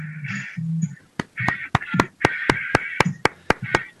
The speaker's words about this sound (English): the studio audience is clapping as well. I want you to know. Uh, so you have got you've got at least three people clapping.